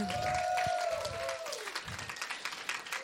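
A room full of people claps steadily for a few seconds, the applause dense at first and then thinning out, with a brief sustained tone sounding over the start.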